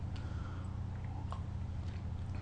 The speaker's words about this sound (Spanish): Después de este primer sorbito, los lunes hay que tomar un poco más de café porque empieza la semana informativa